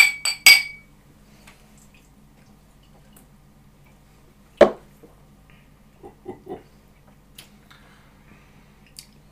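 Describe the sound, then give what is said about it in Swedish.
Glasses clink together in a toast, a quick cluster of bright chimes at the start, then a single sharp clink midway and a few softer taps and clinks afterward, fairly loud. “Till Magnus. Skål Magnus! Skål Magnus! Kippis!”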